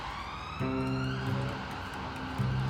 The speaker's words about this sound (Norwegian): We heard the sirens coming uh, uh, closer and closer